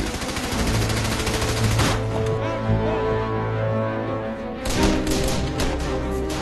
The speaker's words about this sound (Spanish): 7 de marzo de 1945. Soldados estadounidenses del 27 Batallón de Infantería Blindada cruzan el puente Ludendorff bajo una intensa lluvia de disparos de las ametralladoras y la artillería alemana, en un intento por conquistar el Rin.